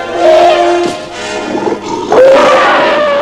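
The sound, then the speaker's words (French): A tiger, bursting from a thicket and about to leap into a clearing, roars loudly in two drawn-out snarling bursts, the second one rising in pitch after a brief dip, with no voices around it. “Francis aperçut soudain un tigre qui surgissait d'un fourré et qui s'apprêtait à bondir dans la clairière”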